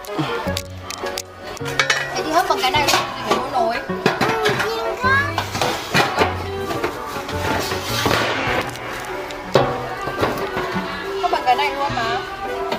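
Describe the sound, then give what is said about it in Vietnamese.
Metal cooking pots and a steamer basket clank and clatter as they are handled while being picked out to buy for steaming king crabs, with repeated knocks and scrapes while adults and a child talk throughout. “Ừ đúng rồi, đây là lồng hấp này.”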